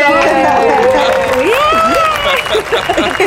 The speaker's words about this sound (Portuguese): receba o aplauso do nosso auditório.